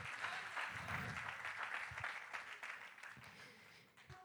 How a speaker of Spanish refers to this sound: A ver, si hay una iglesia que lo cree, tiene que aplaudirle mucho más fuerte. Con ese aplauso lleno de fe, tomar esa palabra.